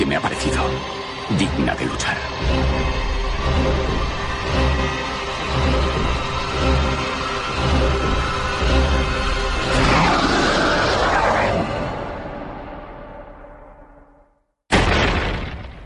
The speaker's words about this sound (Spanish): Bueno, pues ese rugido que se oye parece ser que es un poco el, porqué de la construcción de la muralla insisto, en este film